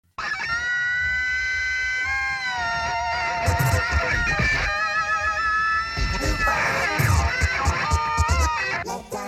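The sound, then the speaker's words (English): A loud, distorted funk guitar solo plays on its own, sustained notes bending and sliding up and down so they rev and whine like a motorcycle engine for about nine seconds. “So it's like a motorcycle guitar solo.”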